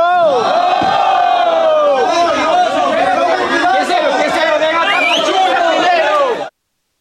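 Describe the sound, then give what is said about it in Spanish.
A large crowd of migrants in a caravan in Mexico shouts "no" in loud, overlapping unison, rejecting the offer, with raised hands and many raised voices sustaining the collective cry for about six seconds before cutting off abruptly. “Bueno, José Eduardo, ya escuchamos que no, a, mano alzada, incluso a voz al aire, lo, rechazan.”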